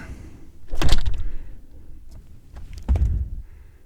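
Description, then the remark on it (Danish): A door is pulled shut, with a sliding scrape and then a heavier thud a couple of seconds later, over a low rumbling background. “Nu lukker jeg døren.”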